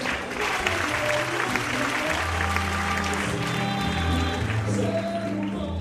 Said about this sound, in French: Des spots accrochés aux arbres dévoilent un nouvel aspect de ce lieu enchanté pour accompagner les applaudissements du public.